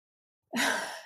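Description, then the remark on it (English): After a moment of silence, a voice lets out a breathy, airy exhale that imitates a yawn, fairly loud, trailing off slightly at the end without any words. “and I was like, "Are you pretending to yawn?”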